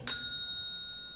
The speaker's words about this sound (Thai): ตึกตึกตึกมันจะอยู่แค่นั้น เหมือนเคาะระฆังเนี่ย มันจะอยู่แค่นี้ใช่ไหม